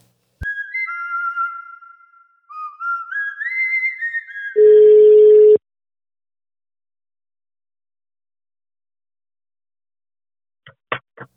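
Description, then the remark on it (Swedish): A phone call to a friend connects: a short series of stepped electronic beeps, then one loud, steady ringing tone lasting about a second, followed by silence and a few faint clicks as the line picks up. “Eh, så har ju vi faktiskt eh, tänkt att vi ringer upp en varsin kompis och som får berätta lite om oss.”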